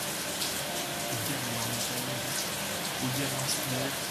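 Steady, dense hiss of rain falling throughout, with faint voices talking softly underneath the constant wash of noise.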